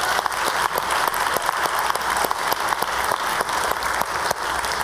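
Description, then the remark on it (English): A church crowd claps steadily for about five seconds, a dense, even patter of many hands at a constant loudness with no voices or cheering over it. The applause thanks the worship leaders who lead worship every week for the kids. “obviously if you needed applause, you would not pick that service to uh, to do for the church.”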